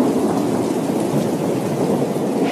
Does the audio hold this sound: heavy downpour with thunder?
yes